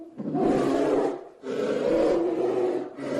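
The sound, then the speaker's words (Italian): A brown bear lets out deep, raspy growling roars in three long, loud bursts separated by brief pauses, with no other sounds around. “L'ARCA DI NATALE, ANIMALI DA NON PERDERE del 15/12/2016 - Orso bruno”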